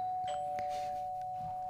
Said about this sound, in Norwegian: mener at det kanskje var en dørklokke.